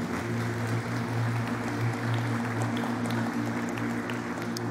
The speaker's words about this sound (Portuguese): Quero convidar a igreja a manifestar o carinho a essas pessoas, dando uma salva de palmas para recebê-los aqui.